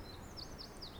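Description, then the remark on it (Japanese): Small birds chirp faintly, a quick string of high, repeated tweets over a quiet background, with no one talking, in spring at a rocky wind-hole area where cold air flows out between the stones, about 10 degrees Celsius under thin cloud. “あ、鳥の声が。聞こえますかね、鳥がピチピチピチピチ鳴いておりますが、えー、こんな声が聞こえ始めたのも2週間ほど前からということでね、えーとまあ、今年の春の訪れとしては例年並みぐらいかな”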